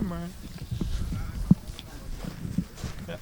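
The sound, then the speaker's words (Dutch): Footsteps crunch along outdoors as people walk off in one direction, a few uneven steps with soft scuffs between them, while a voice murmurs briefly at the start amid faint background noise. “We lopen weer even die kant op, zodat we hen het eh, werk kunnen laten doen.”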